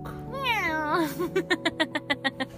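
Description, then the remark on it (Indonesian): A person imitates a cat: one drawn-out, wavering meow, then a quick, even run of about eight short, clipped mews. It is fairly loud, with no other talking. “Nggak kenapa jadi kio Kenapa jadi kucing”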